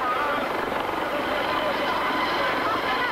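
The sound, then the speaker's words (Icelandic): A helicopter flies overhead with a loud, steady roar of engine and rotor wash, a dense unbroken drone holding the same level for the full three seconds, as Ceaușescu and his wife are flown away from the Communist Party headquarters in Bucharest. “Diggir Securitate leðar gripu sjá Sesku og frú og komuðum upp í þyrtlu sem fluttiðu í örugt skjól í bylið.”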